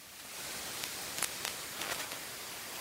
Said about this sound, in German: Hättest du gedacht, dass dein Handy so klingt?